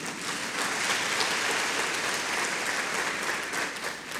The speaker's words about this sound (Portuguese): Se você querer na sua oração, aplauda bem forte o nome de Jesus.